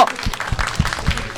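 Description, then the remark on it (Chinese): An audience at a comedy show breaks into steady applause to welcome the first comedian, a dense wash of clapping with a few heavier claps standing out. It is fairly loud and sustained for the whole moment, with no talking over it. “准备你们的热情，朋友们，鼓掌！”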